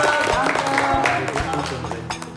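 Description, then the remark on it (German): A short burst of applause in Kalbe for someone who cleaned up the grounds: steady dense clapping mixed with overlapping voices and chatter, holding at a fairly loud level for a couple of seconds before easing slightly. “Also Applaus!”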